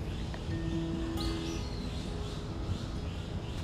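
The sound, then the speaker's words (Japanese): Faint birds of various kinds chirp sporadically against a steady outdoor hum, a few short calls standing out briefly in the middle, with no voices present. “さまざまな鳥の声も聞こえてきます”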